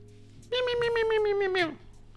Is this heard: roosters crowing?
no